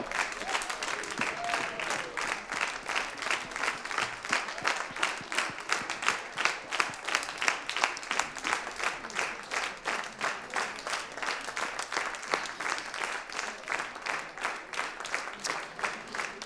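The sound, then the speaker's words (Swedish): Sustained audience applause, many hands clapping in a dense, steady patter that holds at an even level for the whole stretch, with no voices standing out above it. “Ja, vi, vi fortsätter att applådera.”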